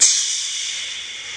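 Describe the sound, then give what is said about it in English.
Glowing red-hot iron, pulled from a blacksmith's furnace, is quenched in water, giving a sharp, bright hiss that flares at once and then fades slowly into a steady, steamy sizzle. There are no voices. “And then once you see it's glowing hot red and it's taken all that it can, you quickly pull it out and you dip it into the water.”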